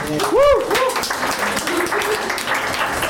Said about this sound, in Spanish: Dense un aplauso, por favor.